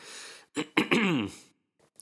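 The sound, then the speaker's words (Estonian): A couple of short, sharp coughs, followed by a longer rough, voiced throat sound, then quiet. “vabandan, kui ma siin vahepeal köhin”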